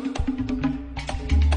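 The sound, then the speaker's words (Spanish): A tambora drum, the drum of Dominican Republic merengue, played in a quick merengue rhythm, deep booming thumps alternating with sharp rim slaps, with no voices over it. “Y se inventaron el merengue con la tambora, que suena así, suena, suena la tambora.”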